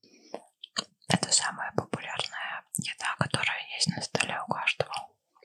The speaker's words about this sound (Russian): Хлеб? Да. В натуре, так хлеб звучит. Очень странно.